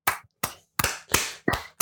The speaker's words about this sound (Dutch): dus dat wil ik toch ook even... Ik wil applaus voor alle vier de meiden.